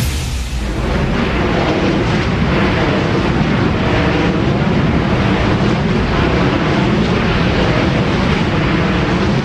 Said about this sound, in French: Est-ce que c'est un avion supersonique qui est en train d'atterrir? Non, ce sont des éoliennes c'est le bruit que font des éoliennes.